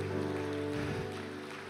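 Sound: audience applause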